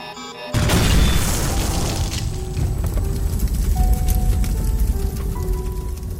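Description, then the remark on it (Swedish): A brief electronic tone gives way to a sudden, massive crash-explosion of an airplane carrying 16 people, including UN Secretary-General Dag Hammarskjöld, in Zambia on 18 September 1961, followed by a sustained roaring rumble with crackling debris and scattered clanks that continues to the end. “Datumet är den 18 september 1961 och ett flygplan med 16 personer har precis kraschat i Zambia.”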